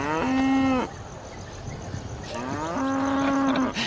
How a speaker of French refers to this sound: Bonjour les vaches.